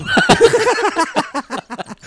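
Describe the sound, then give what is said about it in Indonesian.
A horse whinnies once, a loud neigh that starts high and shrill, then breaks into a quick, fluttering series of pulses that fade out over about two seconds. “kuda gue aman gak di depan?”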